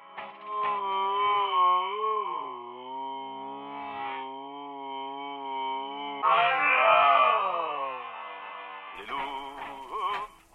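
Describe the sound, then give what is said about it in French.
A pack of seven wolves howling at night in the woods in Estonia, seeming to approach very quickly: long, sustained, wavering howls that rise and fall in pitch, with several voices joining into a dense overlapping chorus in the second half. Loud, with no talking. “soir venu, j'ai capté de curieux hurlements, semblant se rapprocher très rapidement. Mon loup était revenu en meute, juste devant moi, invisible dans la nuit.”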